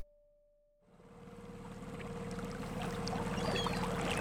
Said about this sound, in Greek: Το καΐκι του Κυρπαντελή τρέχει πάνω στα κύματα. Φλοπ, φλοπ, φλοπ, η χείος πίσω μας έχει χαθεί μέσα στην πρωινή άχλη.